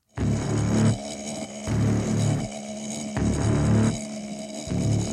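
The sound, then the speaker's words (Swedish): A stinging insect, not a wasp, buzzes inside a glass jar, a loud, resonant drone that swells and dips in roughly one-second surges with no pauses, and no one talks. “oh, det var alltså inte getingen, utan det där andra, det var ju den i en glasburk va?”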